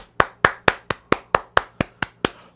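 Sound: hands clapping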